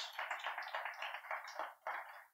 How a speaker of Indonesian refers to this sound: Kasih tepuk tangan buat Tuhan Yesus.